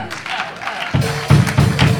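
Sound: audience clapping hands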